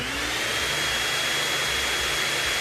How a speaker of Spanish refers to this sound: ¿Qué haces pasando la aspiradora, Nacho? ¿Te parece el mejor momento para pasar la aspiradora?